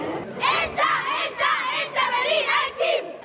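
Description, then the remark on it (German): A girls' football club team in Berlin shouts a rhythmic battle cry in unison, five or six loud, high-pitched bursts in quick succession, energetic, with no separate talking. “Als die Mädchen vom Verein FC Internationale Berlin ihren Schlachtruf machen wollen”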